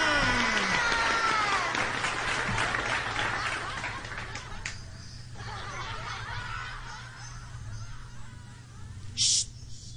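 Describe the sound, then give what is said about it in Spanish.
A group of schoolchildren claps together for a teacher being introduced, with scattered laughter and giggles, a dense burst that fades after about four seconds into quieter murmuring and a few stray sounds. “A ver, niños, el aplauso.”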